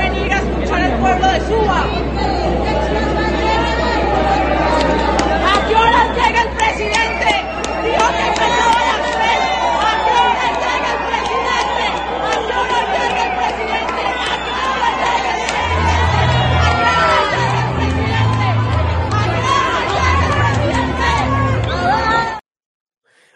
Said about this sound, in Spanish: Eh, la gente estaba esperándolo. Allí, ¿en dónde? En Suba. Ahí miramos lo que pasaba en Suba también, la gente alborotada, de mal genio. A las 3 de la tarde era la cita y Petro no llegó.